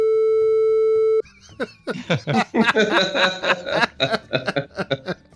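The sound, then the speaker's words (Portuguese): A loud, steady censorship bleep holds a single mid-pitched tone for about a second, then cuts off abruptly into bursts of chuckling and laughter. “E com certeza está bipado.”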